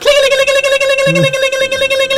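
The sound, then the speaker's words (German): A voice imitates an alarm sounding from an adjoining room, holding a loud, steady, buzzing tone at one pitch for a couple of seconds with a slight pulsing wobble. “Hm, okay, das war wohl der Alarm.”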